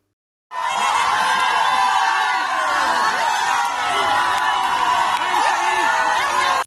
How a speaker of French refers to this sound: Gérald Darmanin a accueilli à Mayotte sous les huées. Dimanche, le ministre de l'Intérieur s'est rendu dans le département le plus pauvre de France pour annoncer la possible suppression du droit du sol dans le territoire ultramarin.